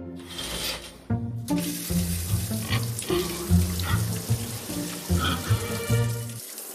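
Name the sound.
shower water running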